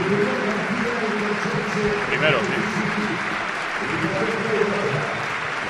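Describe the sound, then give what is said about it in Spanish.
A stadium crowd rises to its feet in a sustained ovation honouring emergency services and those affected by the deadly fire in Valencia's Campanar neighbourhood, dense applause and cheering holding steady at a loud level throughout, while a voice speaks briefly over it. “Todo me estalla en pie, rompe en una ovación espectacular. Escuchemos de fondo.”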